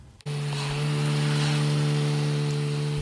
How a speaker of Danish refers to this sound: er lyden af to subboards, der ligger op på taget af Jeff